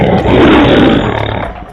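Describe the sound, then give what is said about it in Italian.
A single loud lion roar, a broad rumbling growl that swells and holds for over a second before tapering off with a slight pulsing rasp, in a jingle for the Italian station Radio Giangolciani. No voices. “Radio Giangolciani, ascolta il leone che c'è in te.”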